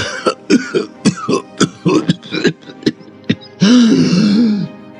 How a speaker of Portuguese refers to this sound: A voz fez uma pausa para tossir e depois de pigarrear voltou a falar.